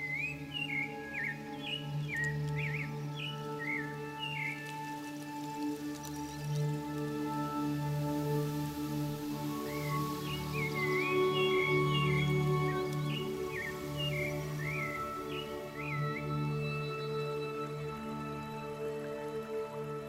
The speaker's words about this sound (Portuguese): O canto vibrante do sabiá faz lembrar o som de uma flauta. Ele canta para demarcar o seu território, no caso dos machos, para atrair as fêmeas.